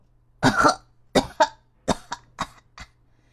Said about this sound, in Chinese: 变色龙被水呛得直咳嗽